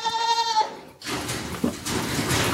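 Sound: goats bleating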